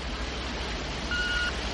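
A single short, steady electronic beep of a telephone answering machine, sounding briefly over a low, constant background hum with no voices.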